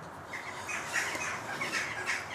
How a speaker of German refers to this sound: Ja, sind die Vögel da. Das sind Elster, ne?